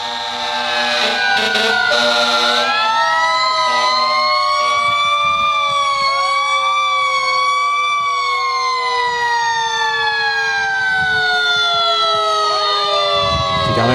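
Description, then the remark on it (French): Several fire truck sirens wail together, loud and continuous, their overlapping tones rising and falling out of step with one another for the whole stretch, as firefighters salute the staff of the CHSLD La Salle long-term care home. “Les pompiers, donc, qui saluent le personnel là-bas.”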